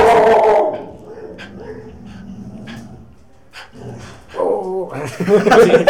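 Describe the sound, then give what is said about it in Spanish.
An electric robot dog named Godard yelps and whimpers in short, high-pitched bursts, loud at the start, then quieter murmuring, before a louder run of whiny barks and whimpers near the end. “Es que, es que mi perro eléctrico, ¿no?”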